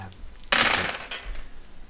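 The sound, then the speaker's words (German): Four dice rolled for damage in a game clatter across a hard surface in one bright, rattling burst of overlapping clicks that fades after about half a second, with a couple of final taps. “So, hörst du, wie viele Würfel ich würfel, um Schaden zu machen?”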